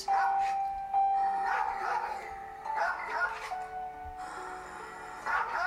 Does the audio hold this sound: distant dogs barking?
yes